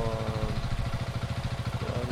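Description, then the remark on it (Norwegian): The speaker's own motorcycle idles steadily behind the speaker, its low rhythmic thumping pulsing evenly throughout with no one speaking. “Eh, dessverre, nå har vi sykkelen min som står på tomgang bak her.”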